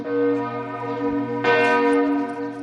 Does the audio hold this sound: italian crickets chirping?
no